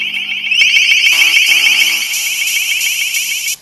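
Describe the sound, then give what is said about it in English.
A piercing, high-pitched electronic alarm tone from a long-range acoustic device (LRAD), sounded as a test, blares steadily at full volume for about three seconds, warbling slightly before cutting off abruptly. “In large outdoor situations, this is a test of the long-range acoustic device LRAD.”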